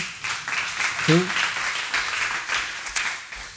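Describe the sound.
A crowd breaks into sustained applause, a dense, steady wash of many hands clapping, with a brief voice or shout rising through it partway in.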